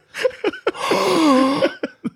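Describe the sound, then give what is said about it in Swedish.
Loud coughing heard through a studio wall from someone on the other side: a few short, sharp coughs, then a long, strained, rasping hack that fades into a couple more quick bursts. “sen vi flyttade in i den här nya studion så är det någon som sitter liksom på andra sidan väggen och bara har den här så här, hostar upp en lunga typ.”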